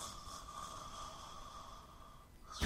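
A low, rough snoring drone carries on steadily and quietly, then ends in a sudden loud snort.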